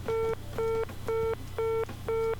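A telephone gateway's off-hook warning tone, sounded at length when a handset falls off its cradle: five evenly spaced, loud, buzzy mid-pitched beeps in a steady on-off rhythm, with a faint low hum underneath and no talking.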